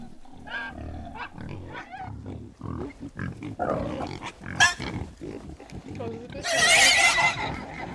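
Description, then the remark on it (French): Piglets squeal and scream harshly and continuously as they are being killed, several shrill cries overlapping in a frantic, agitated commotion that peaks in a loud, piercing shriek near the end. “Oh, c'est hyper agressif, on dirait qu'il va tous se manger.”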